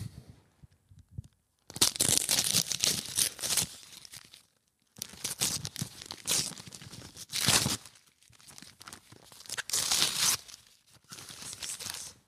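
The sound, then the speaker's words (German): Paper being torn and crinkled as a Christmas gift, a digital luggage scale, is unwrapped, in several loud bursts of ripping and rustling separated by short pauses, with faint low thumps at the start and no talking. “Hast du es schon entdecken können, was, was ich dir Feines geschenkt habe?”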